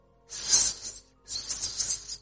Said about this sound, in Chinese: 只见一条七八丈长的巨蛇盘踞在一块巨石之上，斗大的双眼紧紧的。盯着天上的黑云，丝丝的吐着蛇的信子。